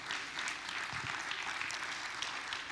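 A crowd applauds steadily, a dense wash of many hands clapping at once that holds at an even, fairly loud level for a few seconds with no one speaking.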